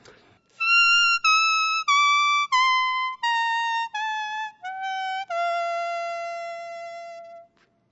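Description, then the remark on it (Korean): A leaf whistle, blown on a single spathiphyllum houseplant leaf, plays a clear descending do-re-mi scale of eight sustained, bright tones, each note stepping lower with short breaks between, fairly loud, the final note held longest. “이파리 한 장으로 내는 네. 소리입니다, 지금.”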